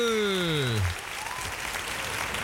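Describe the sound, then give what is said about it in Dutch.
A falling, buzzy tone slides down and stops, then a crowd breaks into steady clapping that carries on at a moderate level to the end. “Ja, je hebt de applaus gehoord, toch?”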